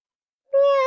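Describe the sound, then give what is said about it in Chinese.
A single drawn-out meow, voiced by a person imitating Duchess the cat arriving at Mrs. Ruby's door in a story, comes after half a second of silence. It is a steady, fairly high, loud tone that is cut off at the end. “是达切斯。喵”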